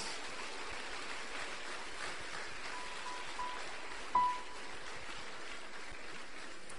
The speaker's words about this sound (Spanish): Vamos a darle un fuerte aplauso a ese ….